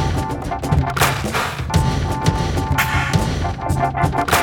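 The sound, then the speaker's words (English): The signature jingle of the radio program Every Time I Ear a Sound, part of the Documenta 14 Radio Project, created by Paranoise Radio and Thessaloniki, Greece: a dense, noisy sound collage of sharp crashing bursts and bangs over a sustained buzzing drone, loud and continuous for a few seconds with no voices. “Paranoise Radio and Thessaloniki, Greece created the signature sound you just heard.”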